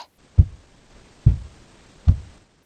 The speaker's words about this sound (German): Schwere Schritte. Und eine Kette klirrte leise mit dazu.